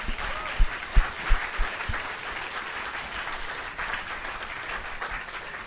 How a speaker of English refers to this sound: So let's give a great round of applause to all the teachers out there.